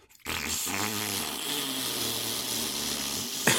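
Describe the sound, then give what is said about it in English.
A voice imitates a deflating balloon with a sustained, buzzy, sputtering raspberry made with the mouth, lasting about three seconds, loud, ending abruptly. “and that, whatever sound you just made came in super weird through Discord, but I tried to do a, a, balloon fart sound with my mouth.”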